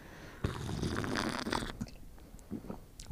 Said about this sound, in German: Bisschen SMR oder wie heißt das? ASMR. Schlürfgeräusche. ASMR-Raum.